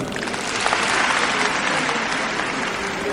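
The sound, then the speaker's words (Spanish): An audience applauds steadily, a dense wash of many hands clapping at an even, fairly loud level for the whole stretch, with no voices standing out above it. “Aplausos del respetable.”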